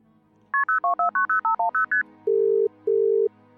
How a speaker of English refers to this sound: I called the company phone number.